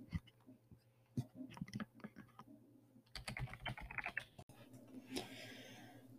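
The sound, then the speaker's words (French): Rapid, uneven keystrokes clatter on a Rocket Magma gaming computer keyboard with a mechanical-sounding action, with bursts of faster typing and a brief spacebar-like thump, no voices present. “Maintenant, je vais vous faire part de, du bruit du clavier.”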